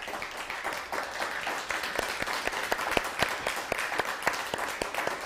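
A crowd applauds steadily for several seconds, a dense wash of many hands clapping with sharp individual claps standing out, holding a fairly even level throughout without any talking.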